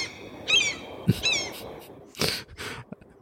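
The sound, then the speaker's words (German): Two shrill, harmonic seagull cries ring out close together, followed by a few short breathy bursts and rustles, with no talking. “Im, Weltall hörst du keine Möwen schreien.”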